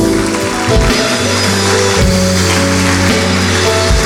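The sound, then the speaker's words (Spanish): An audience at a worship service claps loudly and continuously for the Lord in a dense, steady wash of applause, with sustained keyboard chords and bass notes playing underneath throughout. “¿Qué tal si todos juntos le damos un fuerte aplauso al Señor?”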